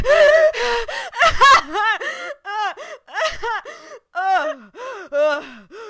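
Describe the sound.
A person mimics gasping for air: a few sharp, breathy inhales, then a string of short, whimpering, sob-like vocal bursts repeating at an uneven rhythm.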